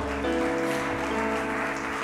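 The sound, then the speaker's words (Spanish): An audience applauds for Jesus in a steady, dense wash of clapping, with sustained keyboard chords ringing underneath for about two seconds. “¿Alguien puede dar un aplauso a Jesús, la razón de todo?”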